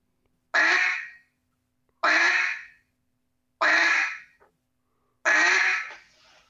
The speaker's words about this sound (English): hit just a, a, a, single quack and do it, it, it with two two to three seconds in between. Hit four to five quacks.